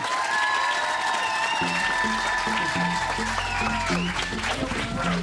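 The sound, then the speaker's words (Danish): A large audience claps and cheers steadily throughout, a dense, loud wash of applause giving a big hand to welcome the arriving guests, while a pulsing music beat begins underneath partway through. “og øh, jeg har lovet, at det skulle jeg gøre på en ganske bestemt måde, men jeg vil gerne høre om I er derude, så vi ikke giver dem en kæmpe, kæmpe, kæmpe, kæmpe stor hånd.”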